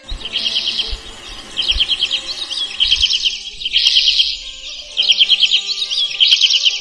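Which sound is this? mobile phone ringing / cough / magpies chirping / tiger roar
magpies chirping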